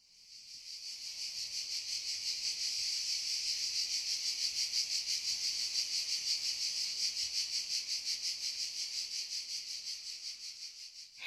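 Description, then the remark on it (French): Cicadas sing in a dense, continuous high-pitched buzz with a fast shimmering pulse, holding loud and steady for the whole stretch with no voices. “Il ne manquait plus que le chant des cigales.”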